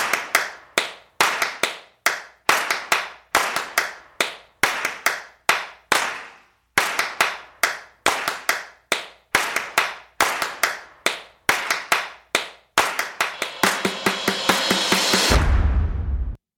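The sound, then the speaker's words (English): A looping pattern of crisp, sharp hand claps and finger snaps in a steady programmed rhythm from a track section holding all its claps and snaps, with no voices. It ends in a fast, dense roll that cuts off with a deep bass hit. “Okay, uh, I had all my claps and snaps in one little section here.”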